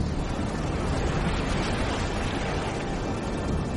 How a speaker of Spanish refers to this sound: Vimos como el agua giraba y giraba sin cesar, haciendo un ruido atronador al romper en las rocas.